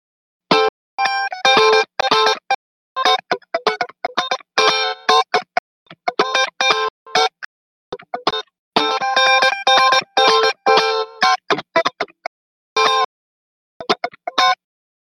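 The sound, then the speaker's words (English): A heavily distorted electric guitar plays a choppy, staccato riff of short bursts and brief pauses, bright and gritty with effects, loud and without any voices. “Let's go with the, let's go with one of the the all timer easy. I can't fuck this up riffs.”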